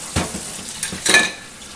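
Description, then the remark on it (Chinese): A cup being washed at a sink that is not tiled: short bursts of splashing, rinsing water with a few light clinks and a brief bright ring of the cup, no voices. “好，这是在洗杯子。”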